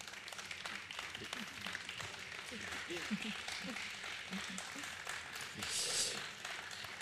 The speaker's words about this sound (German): Vielen lieben Dank, das ist Ihr Applaus. Dankeschön.